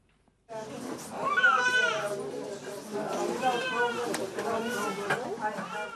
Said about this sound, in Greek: Το κλάμα ενό νεογέννητου στη σκιά του πολέμου. Την ώρα που οι σιρήνε ηχούν στο Κίεβο, βρέφοι γεννιούνται κάτω από αντίξωε συνθήκε στα υπόγεια του νοσοκομείου.